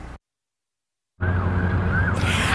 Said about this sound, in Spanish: A esta hora, este es el lugar donde ocurrieron los incidentes esta mañana. Bueno, valga destacar que todo está de vuelta a la normalidad con bastante tráfico